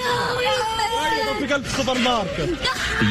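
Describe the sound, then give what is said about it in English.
Several young boys scream and wail in distress among airstrike debris in northern Gaza, searching for their father; overlapping cries rise and fall in pitch without pause, loud and strained over a chaotic background of other shouting. “In northern Gaza, an airstrike left these boys screaming in search of their father among the debris.”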